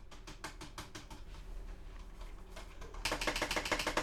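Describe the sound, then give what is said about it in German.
A loose keyboard spacebar clatters with quick clicks as it is pressed, a steady run of taps that turns into a louder, rapid burst of clacking near the end. No one speaks. “Ja, die Leertaste hört sich halt ziemlich locker an, was das angeht.”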